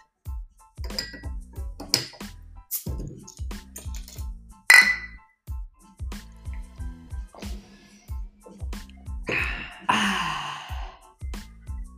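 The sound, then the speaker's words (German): Glasses clink together once in a toast, a sharp bright ring partway through, surrounded by breathy sighs and gasps over a steady low rhythmic pulse. “Prost, dass ihr da seid.”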